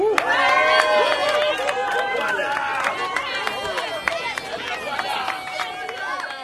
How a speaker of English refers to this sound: For a moment, Maganya Market was filled with the sounds of happy, cheering disabled people who were united, bonded, and ready for the challenge that lay ahead. Crutches were lifted up in the air in jubilation, so were the blind's walking sticks.